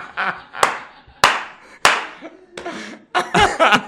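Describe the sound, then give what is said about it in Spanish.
Three sharp, loud hand claps ring out at a slow, steady spacing, each with a short ringing tail, followed by people laughing and talking. “he aplaudido aquí, pensé que estaban aplaudiendo.”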